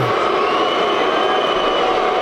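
A football stadium crowd booing while Aubameyang is down injured: a loud, steady, unbroken roar of many voices that holds at an even level for the whole couple of seconds, with no individual speech standing out.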